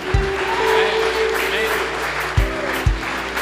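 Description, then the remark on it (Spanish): An audience claps loudly and continuously for God, a dense wash of many hands, with a few heavy low thumps and faint voices mixed in beneath the applause. “Vamos, déselo fuerte a Dios.”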